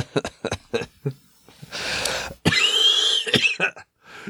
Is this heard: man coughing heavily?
yes